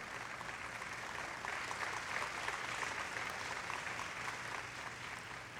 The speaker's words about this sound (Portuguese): Se você vai dar aplauso para ele, que seja bem forte.